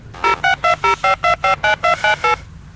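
A quick run of about eleven telephone dialing tones as a guest is phoned, each a short steady beep at an even, brisk pace, fairly loud and clear over a faint low hum, with no voices.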